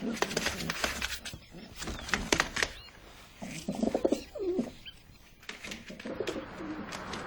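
Pigeons in a park being fed biscuit crumbs coo: a few soft, low, warbling coos that swell and fade in the middle, amid scattered rustling and fluttering noises throughout.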